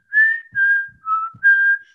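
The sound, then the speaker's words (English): A short whistled advertising jingle for Moonpig of four sustained notes, clear, gliding slightly between pitches with brief gaps. A few soft low thumps sit faintly underneath. “But they changed it to a whistle like two years ago, and it was just,”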